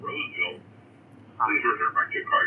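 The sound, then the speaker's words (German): A tinny, band-limited voice comes over a loudspeaker on a train, announcing arrival at the next station, in two bursts separated by a short pause, with faint background rumble underneath. “erreichen wir gleich den nächsten Bahnhof? Hört man, glaube ich, die Durchsage.”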